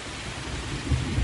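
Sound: rain with thunder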